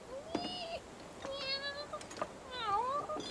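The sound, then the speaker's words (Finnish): Several high, thin meows from two kittens in quick succession, some rising and falling in pitch, with soft background noise and a few small clicks. “Kaksi kissan poikaa, mitä?”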